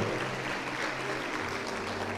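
audience applauding

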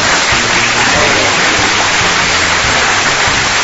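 applause

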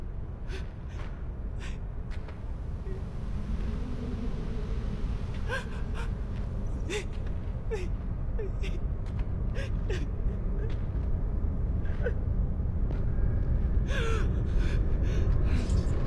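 woman sobbing

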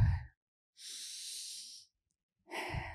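deep audible breathing

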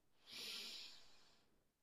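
deep breath in

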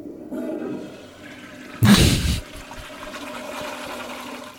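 toilet flushing

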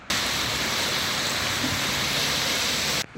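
heavy rain

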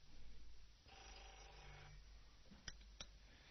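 telephone ringing

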